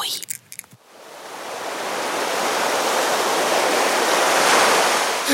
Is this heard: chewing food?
no